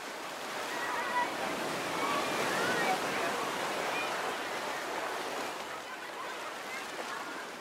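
Ocean waves wash steadily onto a beach on a sunny day, a continuous broad hiss of surf that swells gently and eases without pause, fairly loud, with no other clear sounds.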